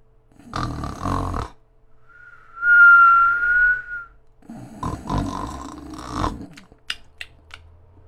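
A cartoonish snore of the cat Wilbur asleep on a flying carpet: a rough, rumbling inhale, then a steady high-pitched whistle on the exhale, followed by another rattling snore and a few faint clicks.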